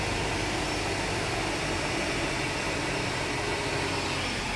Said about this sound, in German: So, das Flugzeug ist jetzt bereits zurückgeschoben und steht schon parallel zum Terminal. Auch das zweite Triebwerk ist jetzt gestartet.